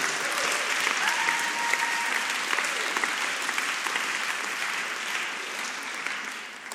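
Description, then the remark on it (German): An audience breaks into steady, sustained applause for the people who helped with a conference, a dense wash of many hands clapping at an even loudness throughout, with no one speaking over it. “Hey, fetten Applaus.”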